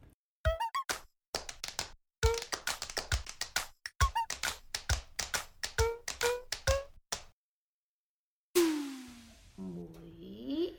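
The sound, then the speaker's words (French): Rapid knocking on a door in irregular bursts of sharp taps, some with a faint squeaky ring, followed after a pause by a different swelling, warbling electronic tone. “Mais les clés de la porte, enfin Mais enfin, je vous entends bien toquer derrière la porte depuis tout à l'heure.”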